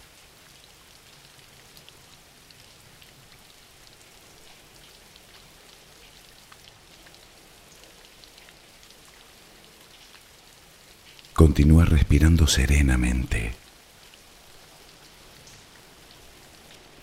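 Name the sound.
steady rain falling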